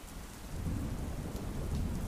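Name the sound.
rain and thunderstorm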